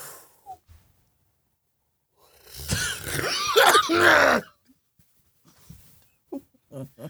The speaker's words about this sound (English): I was yawning.